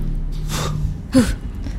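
sharp intake of breath

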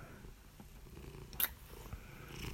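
kitten purring

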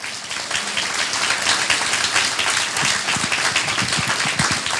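audience hand clapping

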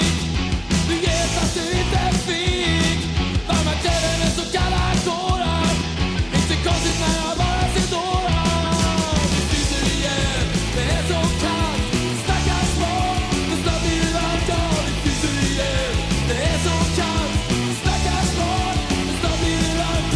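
rock song played

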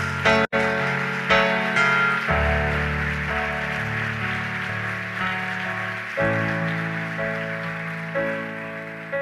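audience applause

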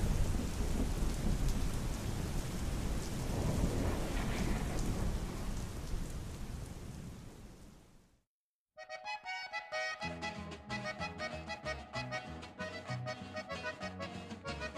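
rain

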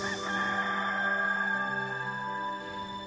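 rooster crowing

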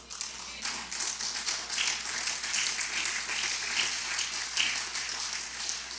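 audience applause

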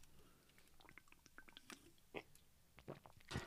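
sipping water

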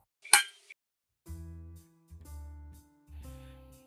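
glasses clinking

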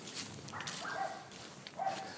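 dog barking nearby

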